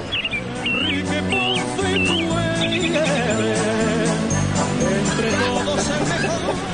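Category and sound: bird, small bird chirping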